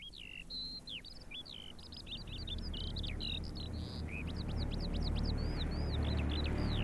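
A skylark sings a continuous stream of high, rapid chirps and warbling trills, bright, over the low rumble of an airplane approaching from afar that grows steadily louder toward the end.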